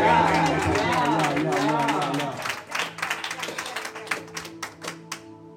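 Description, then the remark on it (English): During a church prayer service, an audience's loud mix of voices gives way to scattered, irregular hand claps, sharp and uneven, over a steady held tone underneath. “Clap your hands.”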